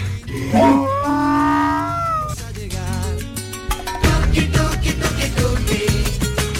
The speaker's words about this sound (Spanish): encuentra en el campo con su burrita, después de mucho tiempo sin verse y esa burra rebuznando de, mm, emoción, de, mm, alegría, de llanto, de pena, de todo, encontrándose con su dueño. Este es el, sonido, lo tenemos ahí.